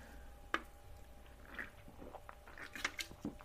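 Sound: chewing gum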